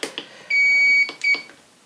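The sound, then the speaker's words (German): An electric kettle's temperature setting beeps twice as the water is set to 90 degrees: a long, steady high-pitched tone followed by a shorter one, with a few soft clicks around them and no talking. “Dann mache ich das Wasser mal auf wie viel? Da sind es gerade zum Beispiel 90 Grad und nur eine Minute Ziehzeit.”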